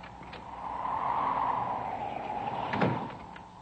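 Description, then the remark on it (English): A door swings shut with a long, steady scraping whoosh that ends in a solid thump near the end, with no voices. “Get out and close the door. You'll blow the lamp out.”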